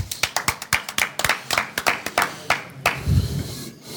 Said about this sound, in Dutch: Applaus.